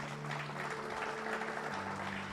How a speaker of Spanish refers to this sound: Denle un fuerte aplauso a la palabra de Dios.